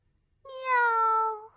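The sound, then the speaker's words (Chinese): A cat gives one long, clear meow that holds steady for about a second, then its pitch drifts slightly downward before stopping. No other sounds accompany it. “长耳驴和猎狗走啊走，他们遇到一只猫。”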